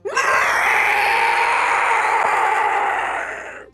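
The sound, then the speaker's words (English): A single sustained, monstrous bellow from an ice giant lasting several seconds, loud and harsh with a rough, scream-like roar that holds steady before tapering off at the end, with no talking. “She let out a monstrous bellow, the sound so awful that all the men and women in the camp fell to the ground in pain, blood dripping from their ears.”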